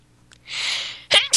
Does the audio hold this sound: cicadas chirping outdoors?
no